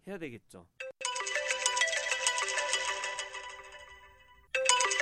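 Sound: telephone ringing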